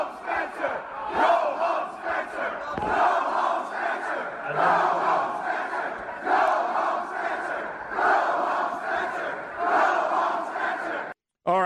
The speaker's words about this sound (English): And, uh, and and and and but I mean, it, it, was shouted down, and he couldn't speak.